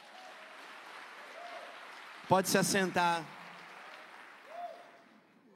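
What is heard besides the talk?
audience applause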